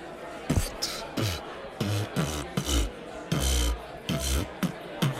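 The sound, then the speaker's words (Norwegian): Beatboxing: a rhythmic run of vocal kick drums with deep thumps and breathy, hissing snare-like bursts, repeating steadily and loudly in a quick groove for several seconds. “Hei, du, jeg har begynt med beatboxing i det siste. Har du lyst til å høre?”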